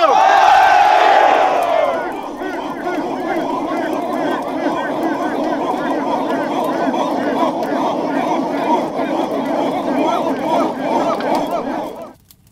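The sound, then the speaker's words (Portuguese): A large crowd of Yanomami and Ye'kwana warriors shouts a slogan against gold mining in unison, starting with a loud collective cry and then continuing as a dense, sustained roar of many voices for about ten seconds before cutting off. “Somos guerreiros Yanomami e Equana. E dissemos todos juntos, Vora Garimbo!”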